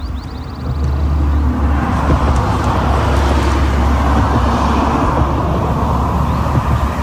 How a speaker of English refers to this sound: There's a few cars driving past because it's much, much cooler up here at a higher elevation than it is down in the desert where it is baking hot.